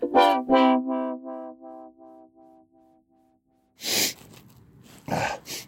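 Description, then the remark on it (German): A fading tonal hum gives way to two harsh, breathy bursts, a sniffle followed by a cough, fairly loud with a short pause between them. “Schnief, schnief, hust, hust.”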